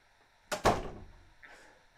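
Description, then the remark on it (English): A door swings shut with a double thud that rings out briefly, followed a moment later by a softer, short metallic rattle as the door is locked. “We locked the door.”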